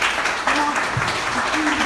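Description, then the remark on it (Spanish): A crowd applauds for God with dense, steady clapping that stays fairly loud for the whole two seconds, while a few faint voices murmur underneath. “Aplauso para Dios, que es el que hace todo.”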